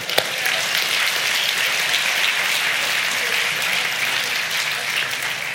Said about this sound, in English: clap for our interns. They're awesome.